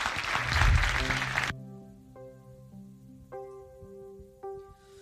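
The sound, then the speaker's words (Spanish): A dense burst of audience applause, loud and crackling for about a second and a half, cuts off abruptly and gives way to soft, sustained keyboard-like musical tones. “Vamos un aplauso a Lucho por haber estado aquí nosotros.”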